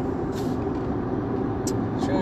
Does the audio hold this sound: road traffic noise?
yes